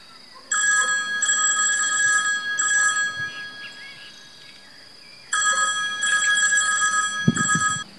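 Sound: telephone ringing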